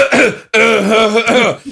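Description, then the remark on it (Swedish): A loud, voiced throat clearing in two or three quick bursts, drawn out into a deliberate, exaggerated "ahem" as a person acts out a man clearing his throat. “harklar sig och börjar putta på henne.”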